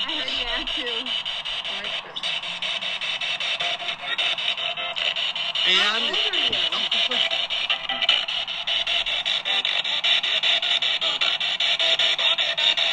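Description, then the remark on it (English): Harsh radio static sweeps continuously from a spirit box, loud, chopped into rapid stuttering pulses as it scans, with brief garbled voice fragments breaking through. “It's trying to use the radio waves.”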